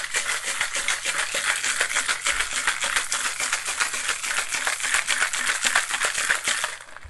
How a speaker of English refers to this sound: And we're going to shake this in our shaker until the tin is frosted.